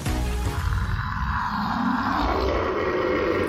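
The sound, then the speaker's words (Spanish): A fierce dog's roaring growl rumbles loud beside a small child near a children's playground, one continuous low snarl that holds steady for a few seconds with no voices around it. “una especie de rugido feroz, al menos para un pequeño de esa edad, resonó a su costado haciéndolo espantar de tal manera que su reacción natural fue correr a toda velocidad para que aquella fiera disfrazada de perro no lo atrapara”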